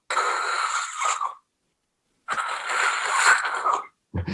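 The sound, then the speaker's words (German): A person imitates a dog's slow, labored breathing from upper airway obstruction: two long, strained, hissing-wheezy breaths separated by a pause, fairly loud, the start of a third cutting in at the end. “Das wäre jetzt quasi eine Verlegung der oberen Atemwege, die langsam ist, also wo Atmung langsam ist, aber eine sehr starke Anstrengung da ist.”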